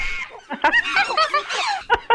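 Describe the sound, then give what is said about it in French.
Monkeys screeching at a home in a loud, chaotic burst: shrill, warbling cries overlap and tumble over one another in rapid succession, ending in a couple of sharp yelps. “Écoute les singes à maison.”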